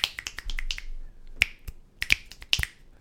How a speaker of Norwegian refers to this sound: Se, venstre blir ikke med. Vente, vente blir ikke med. Vent, vent, vent, vent. du ikke knipse med begge fingre? Nei, tydeligvis ikke. Det Høres ut som bassknips.